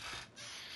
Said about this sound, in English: Hear my chair squeaking? I do. I have like a I have like a Moroku chair. Don't fall out of it.